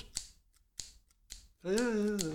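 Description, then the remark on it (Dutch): Three crisp snips from a large pair of scissors used to cut things into pieces, spaced about half a second apart, clear, followed by a man beginning to speak. “ik heb de schaar meegebracht. Daar knip ik alles mee in stukjes.”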